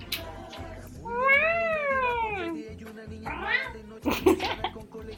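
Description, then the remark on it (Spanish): A pet cat named Julia lets out a long, loud, drawn-out meow, followed by a shorter second yowl, with some background murmur and a brief burst of voice near the end. “Pausa porque voy a sacar a mi gata Julia.”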